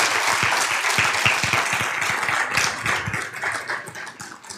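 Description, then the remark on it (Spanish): A crowd bursts into steady applause to God for the lives of a married couple, many hands clapping together in a dense, sustained patter that stays fairly loud throughout and eases slightly toward the end, with no talking over it. “Le damos un aplauso a Dios por la vida de ellos.”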